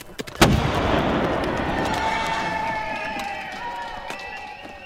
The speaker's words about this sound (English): It seemed the residents had repurposed an old artillery cannon into some sort of festival bauble. As the stone shot flew above our heads